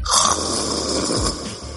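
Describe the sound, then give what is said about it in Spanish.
A person imitates a fierce lion's roar with a loud, raspy, guttural growl held for nearly two seconds, steady and rough, with no talking. “Porque el, roar así, digo, no, no me salen bien la imitación de un león.”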